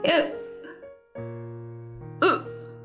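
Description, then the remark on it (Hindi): A voice imitates the hiccups of Elliot the bear in a story: two sharp, loud hiccup sounds about two seconds apart, with a sustained hummed tone filling the gap between them. Clear, with no other talk. “ऐसे करके बार बार थोड़ी थोड़ी देर में हिचकी उसको आती जा रही थी”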